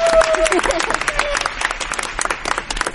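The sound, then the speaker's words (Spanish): A group claps for themselves after reciting a Bible verse together, a dense, steady burst of applause lasting a few seconds, fairly loud, with a few voices and cheers mixed in underneath. “Muy bien chicos, aplauso para nosotros también.”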